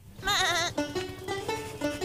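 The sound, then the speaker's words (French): A sheep bleats loudly, one long wavering bleh followed by a few shorter, lower bleats in quick succession, with no one talking; it is Shaun from the animated film Shaun the Sheep, playing frisbee amid the flock with its owner's dog. “et même le célèbre mouton du film d'animation Shaun le mouton joue au frisbee au milieu du troupeau avec le chien de son propriétaire.”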